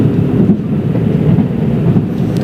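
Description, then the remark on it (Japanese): The diesel engine of a JR Kiha 85 series limited express Hida train, running from Nagoya toward Hida-Furukawa Station in Japan, rumbles steadily and loudly, a continuous low, throbbing drone with no voices, heard from on board. “このキハ85系の特急ひだもとっても素敵です私も子どもの頃から何度かこのキハ85系の車両で旅行に行ったことがありますこれに乗るとわあこれから旅に出るんだっていう気持ちが盛り上がって心が弾んでワクワクしますこのディーゼル車ならではの音聞こえますか”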